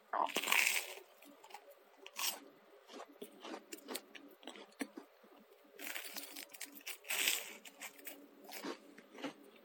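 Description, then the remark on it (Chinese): An ASMR recording of crisp, crackly crunching of toast being bitten and chewed, with bursts of loud crunches at the start, around two seconds, and again near six to seven seconds, softer chewing between them. “我录了一个 ASMR”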